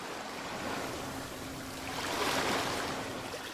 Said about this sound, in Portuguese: Está cercada pelas ondas que chegam e partem incessantemente